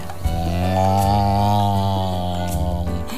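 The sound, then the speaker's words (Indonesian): A single long, low cow moo lasting about three seconds, steady and loud, with no talking over it, as the cow comes out of its pen to look for fresh grass. “Pak Sapi juga keluar dari kandangnya. Mulai mencari rumput yang segar.”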